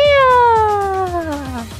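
A single long, loud cat meow sliding steadily downward in pitch over nearly two seconds, with a faint low rumble beneath it.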